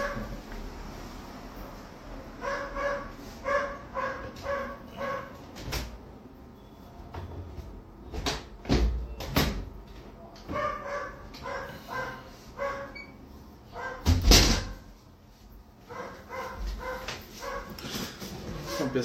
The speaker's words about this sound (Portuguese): Deixa eu só fechar a janela aqui, porque os cachorrinhos da, do vizinho estão latindo.